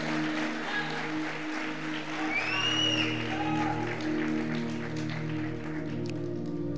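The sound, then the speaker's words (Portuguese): An audience applauds strongly for God in a steady, continuous wash of clapping that holds at an even level, with sustained low droning keyboard tones running beneath the whole time. “Pode aplaudir, meu irmão. Mas aplaude forte.”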